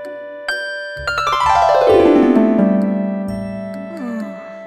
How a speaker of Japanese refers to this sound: チャイムも鳴らしたのにまさか気づいていなかったとは